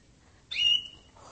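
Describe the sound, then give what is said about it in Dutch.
A small pet bird sings a short, bright whistled note, clear, lasting under a second before a softer twitter follows; no talking. “Het gezang is mooi.”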